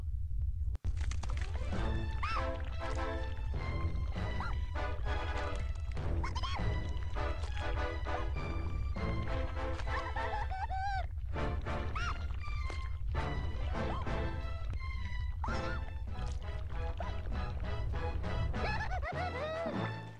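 A video game soundtrack song plays loudly and continuously, a dramatic sung vocal line with vibrato over a dense, heavy backing with strong low bass throughout.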